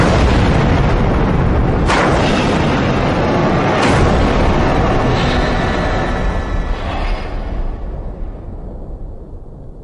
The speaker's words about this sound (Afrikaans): Ses en 20 uur later is daar 'n ontploffing in reaktor nommer 1 by Fukushima, Daiichi kernkragstasie.